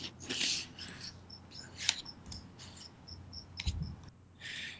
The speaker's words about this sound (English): You noticed as soon as you came on the line that there's a cricket in the background.